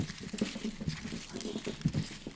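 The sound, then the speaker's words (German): A chair creaks and shifts, producing a run of irregular knocks and scraping clicks, with no one talking. “Den Stuhl hört man auch immer. Der ist echt laut, ich weiß aber.”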